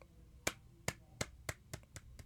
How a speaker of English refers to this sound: That's good. I'm going to give you some golf applause for that.